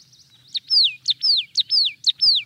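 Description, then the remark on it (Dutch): Marsh tit song: a quick, even series of sharp high notes, each paired with a ringing downslurred whistle, repeated about five times, clear with no talking. “Zo klinkt dat, hè? Glanskop.”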